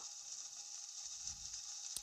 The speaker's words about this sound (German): Jetzt fängt es an zu regnen, Digga.